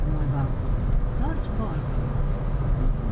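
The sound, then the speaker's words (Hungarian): A steady, low droning rumble of traffic noise heard from inside a moving car, continuous and fairly loud throughout, with faint navigation voice prompts drifting in briefly beneath it. “Forgalom zaja, navigáció, stb.”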